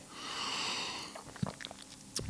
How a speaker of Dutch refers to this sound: Even een slokje, zo af en toe natuurlijk een beetje, dat hoort er een beetje bij.